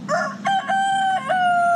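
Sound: rooster crowing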